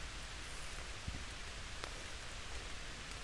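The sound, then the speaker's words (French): Light rain patters steadily on a tent, a soft continuous hiss broken by a few sharper drops tapping the fabric. No voices. “Et là, il pleut un petit peu, peut-être que ça va s'entendre. Il y a des petits blocs blocs qui tombent sur la tente.”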